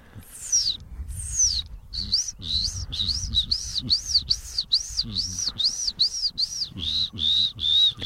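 A bluethroat sings a steady run of about fifteen repeated, high, arching whistled notes, fairly loud and evenly spaced, over a low background rumble.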